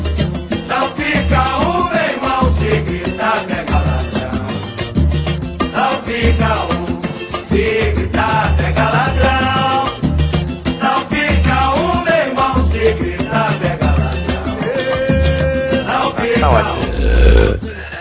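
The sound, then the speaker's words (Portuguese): A long, loud run of deep, rumbling burps with a throaty, voiced quality, continuing almost without pause and swelling louder near the end. “E com esse arroto lindo, maravilhoso e saboroso, começamos o podcast MDM, o podcast mais badernista da internet.”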